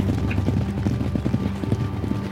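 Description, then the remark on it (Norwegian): Horse hooves clip-clopping in a steady, fairly quick rhythm as a horse is ridden, moderately loud, with a low rumbling background throughout. “Det som skjedde da Han var ute og rei, sant? Og så datt han av hesten.”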